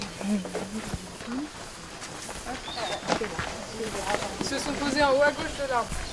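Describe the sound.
Deep, rumbling roars of howler monkeys swell and overlap continuously in a dense Amazon rainforest chorus around the village of Saül, French Guiana, with other animal calls mixed in and a person speaking at times.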